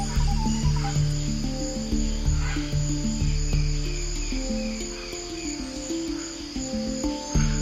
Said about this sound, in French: Celui qui s'aventure en forêt amazonienne, c'est d'avance qu'il a rendez-vous avec la démesure, dans une profusion de sons et de vie, à donner le vertige ou à vous empêcher de dormir